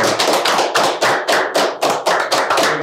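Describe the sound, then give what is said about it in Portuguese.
A round of applause: steady, rapid hand clapping with sharp, bright claps in an even rhythm, loud and continuous throughout, with no talking. “Mas, palma, né? salva de palmas, né, cara?”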